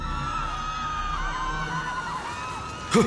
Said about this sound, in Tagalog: Natigilan kami nang makarinig kami ng mga sigawan sa loob.